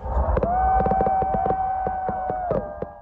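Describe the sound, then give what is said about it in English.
Fireworks at the close of the Burning Man festival in the remote Nevada desert, during the burning of the man, pop and crack in a rapid, uneven string of sharp bangs, with a steady high whistle running underneath, fairly loud, amid a low outdoor rumble. “It was a climatic end to a chaotic weekend as fireworks lit up the sky with the burning of the man to close out the festival.”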